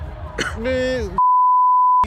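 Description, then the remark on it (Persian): A groaning, drawn-out vocal sound is abruptly cut off by a loud, steady, high-pitched censor bleep that holds for nearly a second before a voice briefly resumes. “خب نه بگو فاشت رو بده من خودم بوق میزنم روش تو لازم نیست سانسور کنی”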